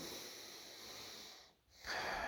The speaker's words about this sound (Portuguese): Estou respirando aqui profundamente, respiro algumas vezes, né?